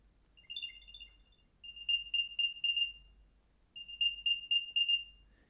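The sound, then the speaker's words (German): A shrill electronic lost-item alert from a small battery-powered item tracker, about the size of a 2-euro coin, chirps in quick bursts of high beeps, pausing between repeated rapid sequences, loud with no one speaking. “Also das ist schon ziemlich schrill und dafür, dass da so eine kleine Batterie drin ist äh, und der wirklich nur knapp, knapp größer ist als ein 2-Euro-Stück, vielleicht doppelt so groß wie ein 2-Euro-Stück”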